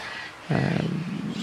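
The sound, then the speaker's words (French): In a large South American aviary, after a brief moment of faint background chatter, a loud, raspy parrot squawk breaks in and holds for about a second, harsh and buzzy, trailing off at the end. “Euh, les habitudes de ces oiseaux ne sont, pas les mêmes euh, du matin au soir, et, on l'apprend ici dans, dans, la grande volaire sud-américaine”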